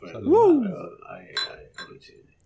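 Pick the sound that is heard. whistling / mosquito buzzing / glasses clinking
glasses clinking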